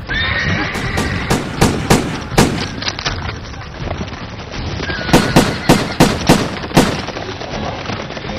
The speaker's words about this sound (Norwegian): Disse skuddene forsinket kanskje svenskene litt, men etter at de norske soldatene hadde fyrt av sine skudd, trakk de seg tilbake, og de svenske dragonene kunne sprengri videre fra Ramsborg og mot Gjellebekk.